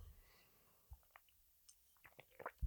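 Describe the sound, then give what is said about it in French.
A small sip of water: quiet lip and mouth clicks, a soft gulp, then a few more wet clicks, with no talking. “Voilà, une petite gorgée d'eau.”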